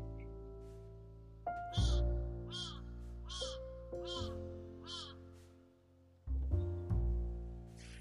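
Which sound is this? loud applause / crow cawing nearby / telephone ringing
crow cawing nearby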